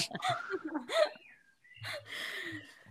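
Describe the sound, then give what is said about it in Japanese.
Birds in the Netherlands chirp outside, muffled through a closed window, with a thin whistled note gliding between short bursts of breathy vocal sounds. “本日はオランダの美しい鳥のさえずりと共にお送りします”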